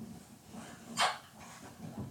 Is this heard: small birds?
no